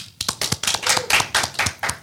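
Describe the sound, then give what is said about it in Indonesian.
An audience claps to welcome a special guest, steadily, a dense patter of many hands with sharp, crisp bursts repeating roughly every quarter second, moderately loud and with no voices. “Tepuk tangan semuanya.”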